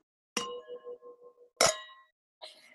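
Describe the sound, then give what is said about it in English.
Wine glasses clink together three times in a toast, each a bright ringing strike with a sustained tonal shimmer that decays slowly; the strikes come about a second apart, clear, with no talking over them. “we'll just keep clinking. Yep, glass.”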